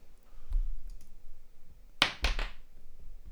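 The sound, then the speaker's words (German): A twelve-sided die tumbles across a hard tabletop in a short burst of three or four quick, sharp, fairly loud clacks, landing on 3, after a faint knock and some quiet rustling. “wollen wir es auswürfeln, womit es weitergeht?”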